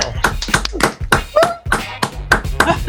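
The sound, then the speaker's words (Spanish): Applause welcoming a guest from the Vive Latino 2022 lineup onto a program, in steady, rhythmic hand claps, about three per second, sharp and fairly loud, with a few faint vocal sounds mixed in and no clear speech. “y nos da mucho gusto porque también forma parte parte de este cartel de Vive Latino 2022 y me da mucho gusto saludar y recibir con un fuerte aplauso a nuestra muy, muy querida amiga”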